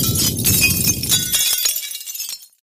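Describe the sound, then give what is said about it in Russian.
A loud crash of glass shattering, bursting into a dense spray of tiny tinkling shards that scatter in all directions and settle over about two seconds before falling silent. “Я почувствовал, как меня отбросило на противоположную сторону комнаты, волной вырвавшейся из черной глади, и как невероятное множество мельчайших осколков разлетелось во все стороны.”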